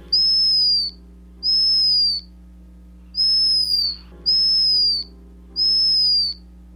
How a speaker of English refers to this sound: The bird is the black guillemot.